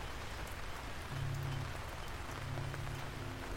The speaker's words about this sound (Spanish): Después de eso comenzó a llover. El cielo también lloraba esos asesinatos.